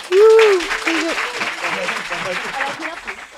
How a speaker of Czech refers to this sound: Takže dámy a pánové, eh, v tuto chvíli velký potlesk